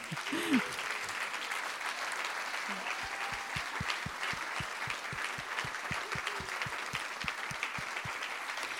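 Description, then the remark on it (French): A crowd applauds itself steadily and loudly; after a few seconds the clapping settles into a quick, even rhythm, with a few voices calling out faintly underneath. “Et ça, moi, je voudrais qu'on on applaudisse, on va s'applaudir en fait.”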